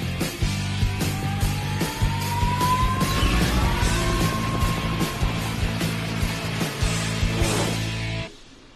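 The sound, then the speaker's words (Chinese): A rescue helicopter flies with a loud, steady low engine drone and chopping pulses, while a whining tone slowly rises in pitch, then the sound cuts off abruptly near the end. “啊，我听到直升机的声音。”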